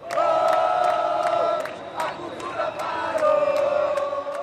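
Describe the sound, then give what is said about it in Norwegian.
A large crowd of demonstrators, thousands of cultural-institution and school employees, shouts and chants together at a weekend demonstration in Rio, Brazil. They chant that cultural life has stopped, schools don't work and healthcare is a scandal. A dense, sustained roar of many voices with rising and falling tones, with sharp clicks or claps at intervals. “Kulturlivet har stanset opp Skolene fungerer ikke, og helsevesenet er en skandale, roper deltakerne i en demonstrasjon her i Rio nå i helgen.”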